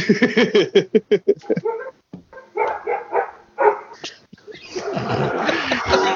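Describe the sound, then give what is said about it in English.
Several dogs bark and yip excitedly, a rapid burst of barks followed by scattered yelps and a noisy, overlapping flurry of barking at the end. “They turned the dogs loose.”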